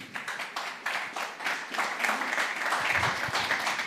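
A crowd applauds steadily, many hands clapping in a dense, crackling wash that stays fairly loud throughout, with a few brief low thumps near the end.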